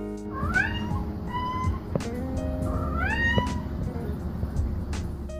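A Siamese cat lets out two long, wavering meows, each rising then falling in pitch, clear over a steady low rumble in the background.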